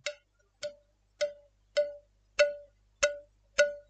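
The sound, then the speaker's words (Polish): Seven evenly spaced, ringing metallic taps on an empty cola can, each a sharp clink with a short tonal ring, clear with no voices. “Słychać to? Co ty, co ty żeś zrobił? To jest puszka.”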